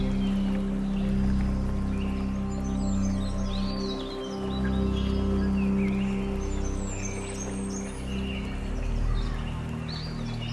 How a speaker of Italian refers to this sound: e dell'erba e della vita che vive all'interno di questo bosco. il fluire dell'acqua.